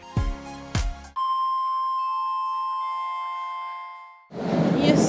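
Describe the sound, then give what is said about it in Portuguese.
A Berlin metro station chime, at a station of the U7 line: two quick struck notes, then a long steady ringing tone that shifts slightly lower in pitch and fades out, cut off by a loud burst of rumbling noise. “estamos agora no metrô de Berlim.”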